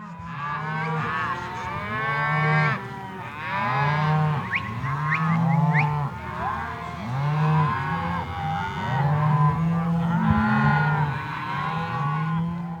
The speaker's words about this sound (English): As we step out of the brewery, Steve's neighbors are driving cattle down the road. Real life ranch brewed beer.